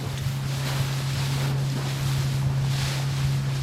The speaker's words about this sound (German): Zuerst mit der Fähre, dann mit Nate im Schlauchboot.